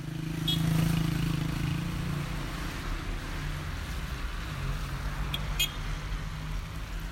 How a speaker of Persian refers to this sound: حالا از الان به بعد من دارم روی صدای خیابانی حرف میزنم که در شمال شهری است که در آن زندگی می کنم.